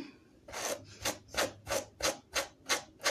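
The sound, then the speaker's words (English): A hairbrush drags through thick, tangled hair in about seven quick, rhythmic scratchy strokes as a person brushes their own hair, fairly soft, with no talking. “Um, so yeah not because last night I couldn't find my brush and so I just had to go to sleep without brushing my hair.”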